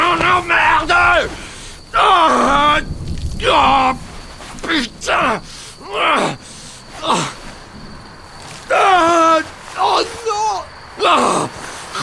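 An injured man screams and groans in agony, a series of loud, ragged vocal cries with strained pitch sweeps, broken by short gasping pauses, raw.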